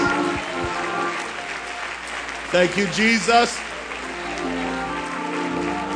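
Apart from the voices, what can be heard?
audience hand clapping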